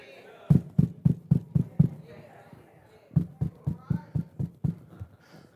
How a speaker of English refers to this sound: Wait a minute, I know that knock. Sounds like Jesus.